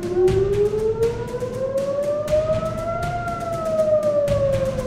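Air-raid sirens in Israel wail continuously after a missile attack, a loud steady tone that slowly rises in pitch and then begins to dip, with harmonics above and a rumbling low background underneath. No voices.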